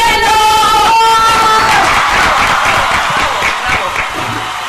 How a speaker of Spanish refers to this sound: Quiero un fuerte aplauso para los chilenos.